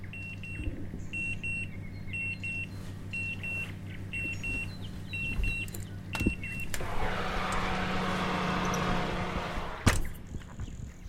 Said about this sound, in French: Ça, c'est le bruit du four. Euh, c'est le bruit de, la sonnerie du four. Euh, bah, quand il a fini de cuire ce qu'il devait cuire, euh, en l'occurrence là c'était euh, une, un gratin.